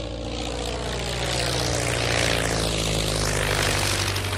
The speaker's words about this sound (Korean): 이들이 탄 비행기는 포커 F7이라는 기종으로 이름은 우정이라는 뜻의 프렌십 호였습니다. 이들은 대서양을 약 21시간 비행한 끝에 영국 남서부 웨일즈의 베리포트에 착륙했습니다.